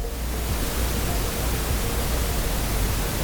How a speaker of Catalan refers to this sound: Després sí que hi ha el soroll blanc, que està bé, no? perquè és un soroll que té una freqüència igual, no, no canvia aquesta freqüència.